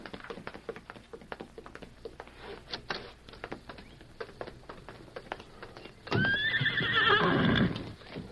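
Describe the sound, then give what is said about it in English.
Steady hoofbeats clop in a quick rhythm, then a loud horse whinnies near the end, shrill and wavering over the continuing hooves. No one speaks. “Now you and Tonto must leave. The horses are in the patio.”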